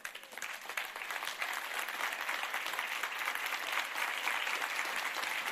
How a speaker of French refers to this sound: On devrait. On devrait. Si quelqu'un veut se lever, l'applaudir, vous avez le droit.